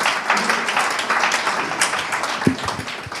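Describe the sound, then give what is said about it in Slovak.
An audience applauds steadily, a dense, even wash of many hands clapping at once that holds for the full few seconds, with a few faint low thumps near the end. “A to je úžasné, to je hodné potlesku, to je hodné vďaky.”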